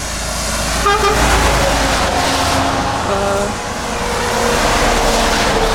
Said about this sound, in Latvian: mazliet traucē tās mašīnas.